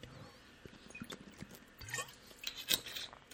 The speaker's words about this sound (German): Was ich möchte, ist einen Schluck Wasser trinken, das mache ich mal eben.